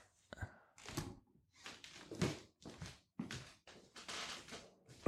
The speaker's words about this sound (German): mach mal zu, es ist eh zu warm draußen, um das Fenster aufzulassen